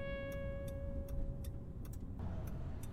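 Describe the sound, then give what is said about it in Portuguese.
A stalled car whose engine has died completely, giving off smoke and catching fire, sits with a steady electronic warning tone droning and a regular, quick ticking like a hazard relay, all over a low, muffled rumble. “carro apagou total.”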